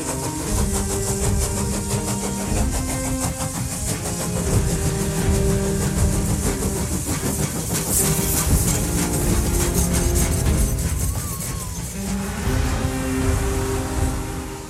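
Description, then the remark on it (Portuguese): A train rolls steadily along the rails, a continuous low rumble with a rhythmic clatter of wheels and a droning engine hum, loud throughout, with no voices. “E mais adiante o trem para numa encruzilhada já, com placas indicativas em direções opostas.”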